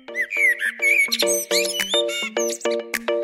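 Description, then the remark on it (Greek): A common blackbird sings alone, loud, in a quick run of fluty whistles and chirpy, buzzy notes repeated in short, rhythmic bursts with barely a pause between them. “κότσιφας”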